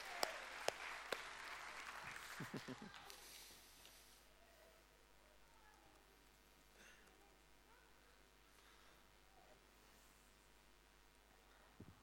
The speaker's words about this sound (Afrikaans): Dis lekker om die kids te sien in die in die kerk en tydens die aanbidding. Dis awesome. Kom ons gee vir hulle 'n lekker hande klap.